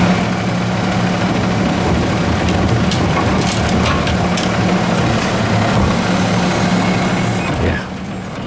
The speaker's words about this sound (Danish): det er jo lyden af skraldevogn. Før fanden har fået sko på, så er de ude.